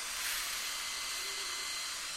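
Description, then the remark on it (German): A hair dryer is switched on and moved nearer, blowing with a steady, even airy roar, bright hissing noise sustained for the whole stretch with no breaks and no voices over it. “Jetzt, dann, dann mach mal den Föhn an.”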